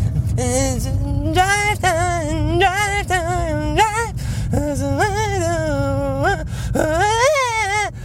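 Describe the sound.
A voice imitates the whiny, high-pitched singing of a typical guitar-strumming stage singer: wavering wails rising and falling in short phrases over a low steady rumble, fairly loud.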